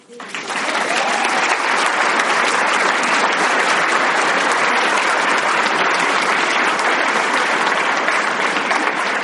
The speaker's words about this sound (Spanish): Eso merece un aplauso.